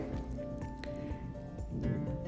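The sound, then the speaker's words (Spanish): Soft, wet squishing and rubbing as aftershave cream is massaged onto freshly razor-shaved skin of the chin, jaw, mouth corners and neck, a steady low-level friction with a few brief squelches over a faint background hum. “utilizo un, un, rociador que contiene igual un, refrescante, que es un aftershave, y una crema. Empiezo a masajear toda la zona donde pase navaja, eh, barbilla, mentón, comisuras, eh, cuello.”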